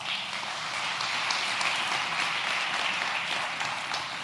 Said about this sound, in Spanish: Yo creo que le dejo un aplauso a Dios por eso.